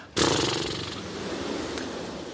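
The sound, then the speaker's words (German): Someone blows a steady stream of air out through loose, fluttering lips as a voice warm-up exercise, a rough buzzing rush that starts abruptly and holds for about two seconds with no talking. “Jetzt blasen Sie bitte einmal durch die Lippen aus.”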